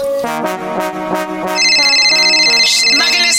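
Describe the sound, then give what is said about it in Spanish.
A telephone rings with a loud, melodic electronic tune of quick repeating notes, joined halfway through by bright, sustained high-pitched tones. No one speaks. “Está sonando el teléfono.”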